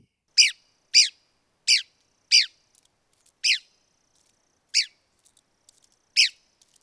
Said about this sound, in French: Le mâle porte un minuscule point rouge à l'oreille, difficile à voir. Son aire de répartition, c'est du sud-est des États-Unis. Ses habitats, les pinèdes clairs. Et comme à l'habitude, voici la voix de l'oiseau à l'honneur aujourd'hui.